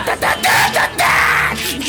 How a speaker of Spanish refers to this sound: Oye, …, yo creo que ya no deberías gritar tan mal, ¿no? O sea, realmente te vas a quedar afónico.